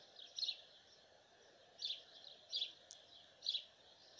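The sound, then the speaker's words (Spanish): Birds sing in short, bright chirping phrases that repeat every second or so, fairly faint, over a soft steady background hush with no voices. “Disfrute de los cantos de los pájaros.”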